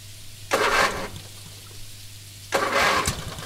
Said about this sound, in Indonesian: Sembari takut, saya kembali memalingkan badan ke arah sepeda motor saya. Dan saya mencoba lagi untuk menghidupkan motor saya.